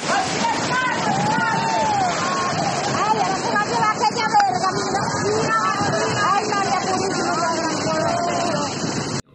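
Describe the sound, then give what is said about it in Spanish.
A steady roar of rushing river floodwater in Maracay fills the whole recording as a car is swept away by the current, while a crowd of people talk and shout excitedly over the churning current. “Donde un carro era arrastrado por la corriente del, río.”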